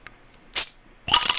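A beer can cracks open with a sharp metallic pop, followed a moment later by a loud, bright fizzing hiss, heard on its own with no talking.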